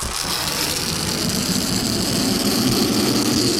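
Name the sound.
balloon deflating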